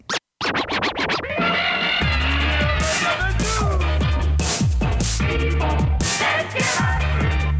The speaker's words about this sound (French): Au son du scratch, il sera très approximativement midi.